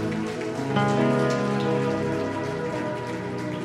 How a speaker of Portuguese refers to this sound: Dá um aplauso bem forte ao Rei da Glória aí, irmão. Vamos juntos, vai.